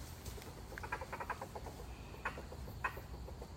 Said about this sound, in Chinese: 哇，这个鸟叫声也很酷。 竹鸡吧， 竹鸡，哈哈哈哈哈。 竹鸡也是一种鸟禽。